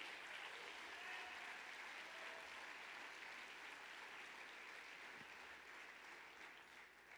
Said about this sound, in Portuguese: Aplaude Jesus então.